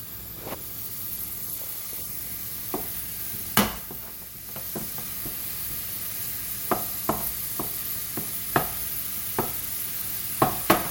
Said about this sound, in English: So I'm just mashing this sausage into little tiny pieces in the frying pan and keeping them scooted around to make sure that they get done all the way through.